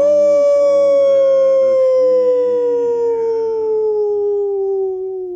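A single dog, tied to a low wall, howls in one long, sustained, mournful note that slowly sinks in pitch, loud, with no other sounds around it.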